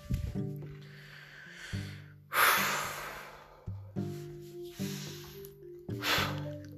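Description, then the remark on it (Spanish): Heavy, agitated breathing of a person who has just eaten and talked a lot: a series of loud, rough inhales and exhales, some with a voiced gasping edge, repeating unevenly about every second with no talking. “Y eso hace que mi respiración no sea buena y se agite muy rápido.”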